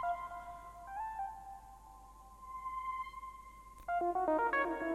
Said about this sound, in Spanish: Y esta especie de... Esta especie de sonido medio mantra que va sonando en la oscuridad de la Blue Note.